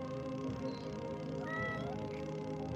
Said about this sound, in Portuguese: É, o meu gato aqui vai pedir comida. Eu tenho um gato de 15 quilos tá aqui do meu lado pedindo Nossa. comida.